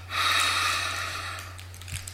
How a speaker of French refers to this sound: Un, on prend une grande respiration.